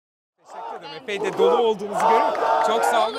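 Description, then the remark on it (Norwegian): Hundreds of people packed tightly together chant 'Justice, right and law' in unison, in support of Canan Kaftancıoğlu in the square in front of the headquarters of the opposition party CHP, voices rising and falling in a steady rhythmic cadence, loud and sustained with shouted emphasis on each beat. “Rettferdighet, rett og lov, roper de taktfast. De har samlet seg tett i tett, ja i hundrevis, for å støtte Janan Kaftangiolo, kvinnen som har påført Erdogan sitt største nederlag til nå.”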